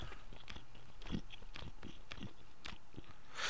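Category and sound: household object, cutlery clinking on plates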